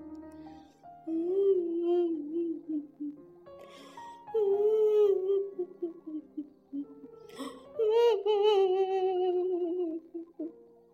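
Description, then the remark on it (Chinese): A wavering, mournful crying sound, likely a voice imitating an owl's wail: three long sobbing phrases with sliding pitch, fairly loud, with short breaks between them and no talking. “突然传来了一个可怕的哭声。”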